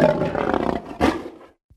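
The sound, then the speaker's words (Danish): A bear's deep, growling roar, loud, rumbling for over a second with a sharp surge partway through before cutting off, followed by a faint short grunt. “Bjørnens svar var, som man kunne forvente det er et primitivt rovdyr.”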